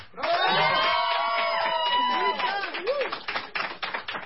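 A crowd breaks into applause and cheering, with rising and falling whoops and shouts over dense clapping that continues steadily, then thins into scattered claps toward the end.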